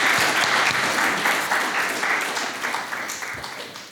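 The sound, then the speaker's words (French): An audience breaks into sustained applause, a dense, steady wash of many hands clapping at once that stays loud throughout and tapers only slightly toward the end. “Une bonne main d'applaudissements.”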